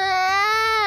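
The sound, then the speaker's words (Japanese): A person imitates a crying baby, recalling a baby crying next to a photo-taking room, with a single loud, sustained wail lasting about a second, a steady, slightly rising pitch and no other sounds around it. “なんか前髪どかせって言われたの相当嫌だったんだなと思ったら普通に隣で赤ちゃん泣いてるだけで お母さんが叫んでると思ったの「うー!」って言ってると思ってちょっとドン引きしてたら普通に赤ちゃんが泣いてるだけだった”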